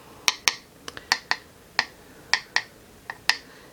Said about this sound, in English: is my hairpin tapping on the hairbrush. And this is the stems of the hairpin going through the pins on the brush.